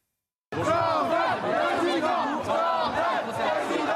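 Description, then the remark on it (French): A loud crowd chants Jordan Bardella's first name in unison at the Salon de l'Agriculture at the Porte de Versailles. The rhythmic two-syllable call repeats steadily over dense crowd noise with many overlapping voices. “Son prénom scandé et des demandes de selfie à n'en plus finir.”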